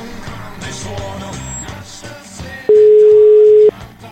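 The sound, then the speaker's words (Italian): A single loud, steady ringing tone of an outgoing phone call lasts about a second over quieter background music, with no one picking up. “Dai, rispondi, dai, che ce la puoi fare, dai, prendi questo telefono!”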